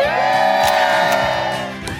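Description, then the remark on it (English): A Today Show studio crowd cheers loudly and steadily, a dense wash of whoops and shouts that holds its energy for about two seconds before easing slightly at the end, with no speech over it. “What a crowd.”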